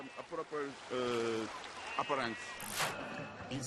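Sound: sea water splashing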